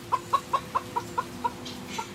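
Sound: chickens clucking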